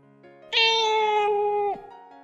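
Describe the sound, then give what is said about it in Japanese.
A single drawn-out meow from a black cat, loud, rising sharply then holding a steady wavering tone for over a second before cutting off, with a faint low hum underneath. “彼らが座っている椅子の前に、いつもの黒猫が、スーッと現れた。”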